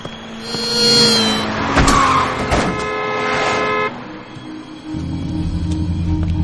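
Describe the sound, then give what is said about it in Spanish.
Cars rush past on a busy street as a man staggers across it and is nearly run over, horns blaring in long sustained honks over rumbling engines, with a brief screech of tires; no one speaks. “Cruza la calle dando tumbos, los coches están a punto de atropellarle.”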